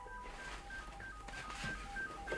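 A string of short electronic telephone beeps, like keypad tones, sounds at a steady quick rhythm as a man answers a phone call, fairly faint over a soft background hiss, with no talking.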